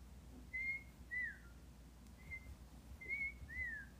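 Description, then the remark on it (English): Someone whistles several short, thin notes in uneven bursts, a few with a rising or falling glide, mimicking a whistle sound effect. The whistling is fairly quiet, with no talking. “And normally we would we would ha- we have the whistling sound effect at this point, but because we don't have that sound machine, we will have to make it ourselves.”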